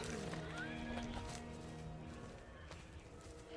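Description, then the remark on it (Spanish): Horses neigh and whinny restlessly, with a rising squeal near the start and steady harmonic calls over a dense, rumbling background. “Los caballos se inquietan.”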